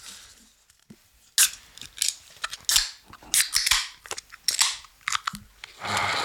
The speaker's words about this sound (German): holt drei Heineken-Dosen raus. Okay. Und zwar will ich auch was mit euch anstoßen. Lass uns auf was anstoßen. Okay, erstmal machen wir es auf hier.